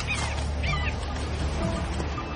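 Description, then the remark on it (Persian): A hawk fighting an iguana on Seymour Island, its talons sunk into the lizard: a couple of short, harsh bird cries ring out over a constant rough rustling, fairly loud, with no voices. “بعضیاشون خیلی جدی تر از این حرفا مثل صدایی که میشنوید صدای جنگ یک شاهین و تسلیم شدن یگانا در این جزیره”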